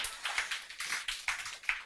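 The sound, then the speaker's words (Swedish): Light, scattered applause from an audience, soft, with claps arriving in loose uneven bursts rather than a dense roar. No one speaks. “Ska vi ta en applåd för det?”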